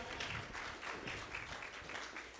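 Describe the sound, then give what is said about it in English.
Steady applause from an audience, a dense patter of many hands clapping at once, sustained evenly throughout, with no voices standing out. “Yes, why don't we give them a round of applause?”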